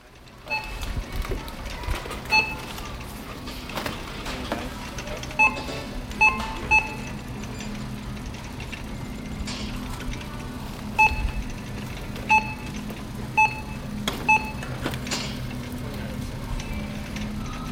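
Busy supermarket ambience, a steady hum of background noise, punctuated by short, sharp checkout scanner beeps that recur irregularly, sometimes in quick pairs, throughout.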